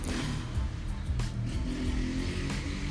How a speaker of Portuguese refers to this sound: E essa passagem de moto por aqui acaba tirando um pouco a atenção.